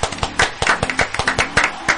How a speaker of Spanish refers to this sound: Vamos a presentar a la invitada especial del día de hoy, que es, y quiero aplausos por favor de toda la mesa, la arquera de Boca